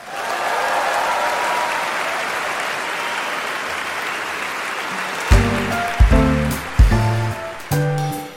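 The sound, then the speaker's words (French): About 1,500 guests clap steadily for about five seconds, a dense wash of applause, after Lang Lang and Gina Alice play Brahms's Hungarian Dance No. 5 four-handed on a Steinway piano on 22 October; a few loud, distinct piano-like chords then ring out over the fading clapping. “Un accueil triomphal.”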